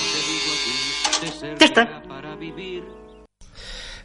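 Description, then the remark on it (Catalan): A steady electric buzz from a shaving helmet, a helmet worn by a father that shaves him, hums for about three seconds under voices speaking over it, then cuts out briefly before a short burst of noisier sound. “un dels sons que sentien, per exemple el casc que porta ell, un casc on s'afeita”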